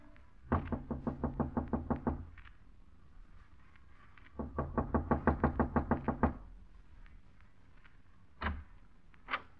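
Two quick, steady bursts of knocking on the door of apartment 206 on the second floor of the Bachelors Club, about a dozen raps each, separated by a pause, then two more single knocks. Fairly loud, with no voices.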